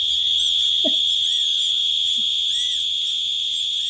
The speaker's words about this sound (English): This is Joel Harden. This is a guy pointing an emergency ear buzzer inches from your face.